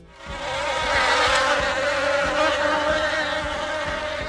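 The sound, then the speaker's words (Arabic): A dense, steady drone of many bees buzzing around a hive full of honey hanging from a large tree, fading in quickly and then holding at a loud, even hum. No voices are heard. “وجدت شجره كبيره معلق بها شيء غريب كالشبكه عندما اقتربت منه قليلا اكتشفت بانها خليه نحل ممتلئه بالعسل”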